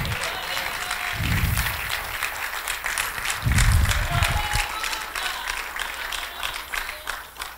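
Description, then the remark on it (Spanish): A church audience breaks into loud, sustained applause for the Lord, a dense wash of many hands clapping steadily for several seconds, with a few brief swells of voices and whoops rising under it. “Si le va a dar ese aplauso, déselo fuerte al Señor.”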